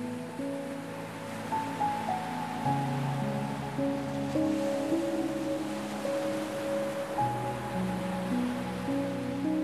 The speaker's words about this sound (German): Dein Blick ruht auf den Wellen, die gleichmäßig zum Strand gespült werden und sich wieder zurückziehen.